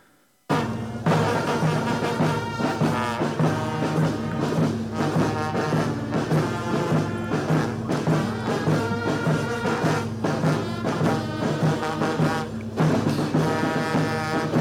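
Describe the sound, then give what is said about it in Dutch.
A national anthem plays loudly and continuously at a ceremony in Africa while people stand stiffly at attention with hands on their hearts, with full, sustained harmonic chords from a large ensemble moving at a stately, steady pace. Nobody speaks over it. “Terwijl het volkslied wordt gespeeld.”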